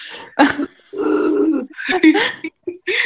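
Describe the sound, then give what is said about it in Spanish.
A voice imitates exaggerated straining grunts, like people exercising who lift a weight of about two kilos, in a series of loud, strained vocal bursts with brief pauses between them. “me acuerdo que hay muchos que hacen sonidos muy extraños eh, haciendo ejercicio levantan una pesa así como de dos kilos y...”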